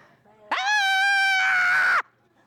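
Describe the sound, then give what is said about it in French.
A woman demonstrates how she can scream: a single loud, sustained scream lasting about a second and a half, shrill and theatrical, rising sharply then cutting off abruptly. “Oui, vous voulez que je vous dise comment je peux crier”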